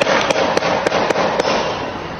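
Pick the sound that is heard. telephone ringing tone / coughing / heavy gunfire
heavy gunfire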